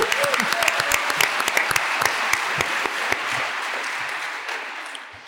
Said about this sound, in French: Ovation